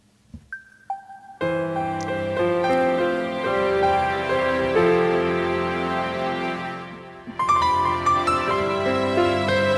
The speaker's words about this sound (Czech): Takže v tuto chvíli uděláme takovouhle vsuvku. Já tady dám ještě takovouhle jako předehrávku, aby jsme to trošku oddělili.